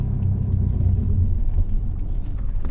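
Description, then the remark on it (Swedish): A bus engine starts up and rumbles steadily at a bus stop in Odessa, a deep continuous low drone with a slight uneven throb, heard on its own with no talking. “Där har vi bussen som startar.”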